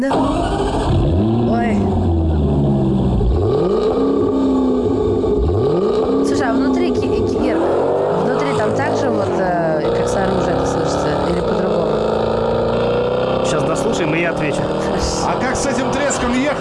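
A Jaguar F-Type sports car engine roars loudly, revving up and down in repeated sweeping bursts before settling into a sustained, throaty growl.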